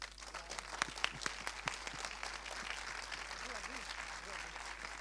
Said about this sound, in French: Donc c'était l'avant-première de À la vie, réalisée par Aude Pépin, qu'on peut applaudir également. Hein. Bravo.